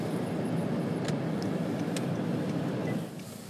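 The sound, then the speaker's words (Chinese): A quiet, steady electric hum inside a hybrid car cabin with the air conditioning switched off, a soft low rumble with faint hiss that holds even and eases slightly near the end, with no voices. “像现在这空调关了，感觉能听到这个，只能听到电流声哈。”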